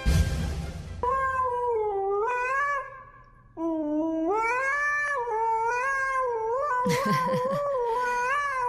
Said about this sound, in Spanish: no es mi perro, se los juro, no es mi perro. O sea, le, gusta aullar, pero, pero no es el mío.